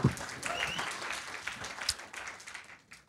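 An audience applauds, a dense wash of many hands clapping steadily at moderate loudness, with a few brief cheers or whoops rising above it before it starts to thin out toward the end.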